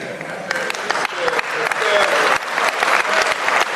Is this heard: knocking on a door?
no